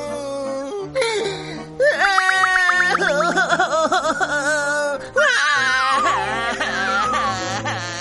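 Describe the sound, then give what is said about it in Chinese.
Broken, wailing sobs on Pumpkin Street in a forest town at dawn rise and fall in uneven bursts, with quavering high-pitched cries, short pauses and catching breaths between them, loud and with no one speaking over them. “不一会儿，南瓜街上传来一阵断断续续的哭声。”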